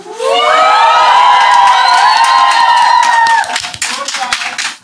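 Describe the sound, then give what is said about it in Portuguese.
A live audience cheers loudly with many overlapping shouting and whooping voices over steady applause, then the cheering drops off and scattered clapping and a few voices carry on to the end. “E se você está ouvindo isso agora no Spotify, você vai entender que tem público.”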